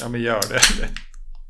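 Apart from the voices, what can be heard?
beer being opened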